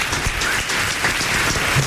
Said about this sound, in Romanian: Pe aplauze! Aplauze!